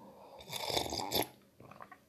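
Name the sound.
slurping tea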